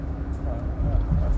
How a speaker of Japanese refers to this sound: うるさいトラックを運転しながらの放送になりましたので。お聞きお聞き苦しかったら申し訳ございません